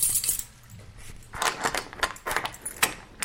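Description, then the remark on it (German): Keys jangle and scrape in a lock as guards unlock a cell door, a bright metallic rattle with several sharp clicks and clinks over about three seconds, with no voices. “Drei Goblins jeweils die zu der rechten eurer Zelle drehen sich in Richtung eurer Tür und schließen diese auf.”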